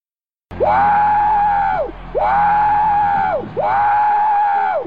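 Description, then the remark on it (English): A voice imitates a train whistle with three loud, sustained, wavering hoots in a row, each rising, holding and dropping off, with only brief gaps between them and no other talk. “You sound like a, a big choo-choo train”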